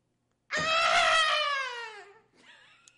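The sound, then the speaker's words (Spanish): Late at night, a woman lets out one loud, piercing scream that holds for over a second and slowly falls in pitch, followed by a shorter, fainter cry. No talking. “Altas horas de la noche, grita.”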